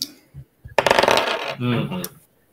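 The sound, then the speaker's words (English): Dice clatter across a hard tabletop for a random encounter roll in a tabletop game: a couple of light taps, then a quick burst of rattling tumbles that settles and stops within about two seconds. “you're gonna roll it twice now.”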